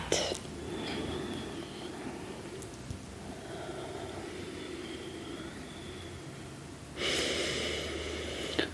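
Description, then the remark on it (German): Slow, deep breathing with a long, airy breath rising near the end over a steady low hiss, and a shorter breath at the very start. “Und immer tief atmen.”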